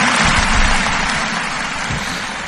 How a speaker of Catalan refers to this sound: Aquí uns aplaudiments, va, som-hi.